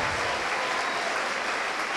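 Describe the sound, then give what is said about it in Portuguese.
An audience at a religious service in São Paulo claps for the word of God, a dense, sustained wash of applause, loud and even throughout, with no voices breaking through. “Então desocupe as mãos e vamos dar para esta palavra a mais linda e mais poderosa salva de palmas que já se ouviu na cidade de São Paulo.”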